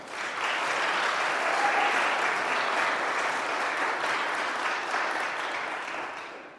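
A crowd applauds steadily for several seconds, a dense wash of clapping that holds a constant level before fading slightly at the end.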